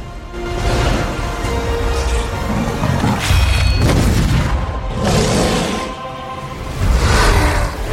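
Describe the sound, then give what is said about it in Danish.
Dense cinematic sound design from a Blizzard World of Warcraft expansion announcement trailer, with deep rumbling booms and several rising whooshes, loud and continuous, with thumping impacts and swells of noise across the whole stretch, no talking. “Det er som sædvanligt en fantastisk World of Warcraft expansion announcement på YouTube eller på de øh, diverse, hvad hedder nu, Blizzards”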